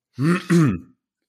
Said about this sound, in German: Soll ja, ich, ich muss mich nur räuspern.